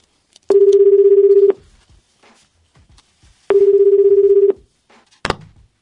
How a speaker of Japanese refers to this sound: 電話をつないでみたいと思います電話かけてみましょう